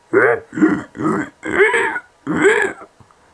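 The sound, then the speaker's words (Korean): A person imitates a pig, making five rough, grunting oinks in a quick, uneven series, loud, followed by a brief quiet tail, voicing Mr. Piggott turning into a pig in a story. “꿀꿀꿀꿀꿀 꿀꿀꿀꿀 픽 피고 씨가 꿀꿀됐습니다”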